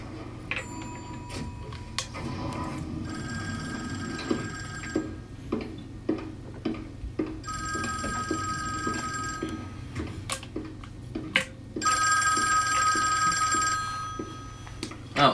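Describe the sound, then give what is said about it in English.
An old-fashioned telephone bell rings in loud, repeated metallic bursts with short pauses between them, over a low steady hum and some faint background murmuring. “old old phone so they won't get hacked.”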